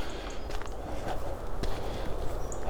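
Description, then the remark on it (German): Footsteps crunch up a trodden footpath at a steady walking pace, over a soft outdoor background with faint high bird chirps. No one speaks. “Oh, hier gibt es noch so ein Trampelfahrt, da gehe ich mal hoch, da ist noch so ein Schild.”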